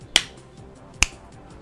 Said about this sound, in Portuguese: bate palmas lá, dá um estalo perto do microfone.